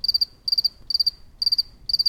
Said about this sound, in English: I have recorded lots of wildlife over the years, but the sound I've used the most is easily this recording of a single cricket chirping away.